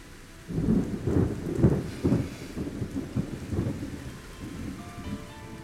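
thunderstorm with rain

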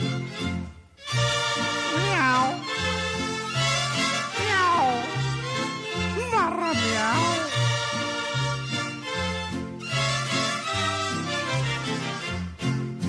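cat meowing and caterwauling

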